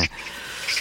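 A magpie calls in a few brief, harsh chattering notes, one at the start and a pair near the end, fairly faint and somewhat distant, with no voices.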